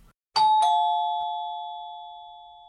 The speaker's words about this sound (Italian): Si sente suonare alla porta.